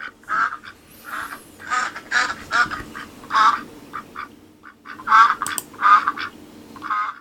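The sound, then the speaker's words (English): A duck quacks over and over in quick, uneven, loud bursts, with brief pauses between runs of nasal calls and no voices alongside. “Insert quacking up joke here.”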